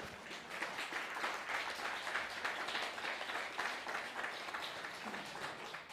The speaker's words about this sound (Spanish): No, pues, siquiera un aplauso para el bendito sea.